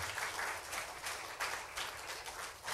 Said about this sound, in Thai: ถ้าเราตบมือให้พระเจ้าดีไหมครับ อาเมน